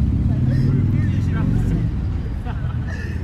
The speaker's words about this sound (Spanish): siempre hay motos en Roma. Siempre hay motos, en todos audios.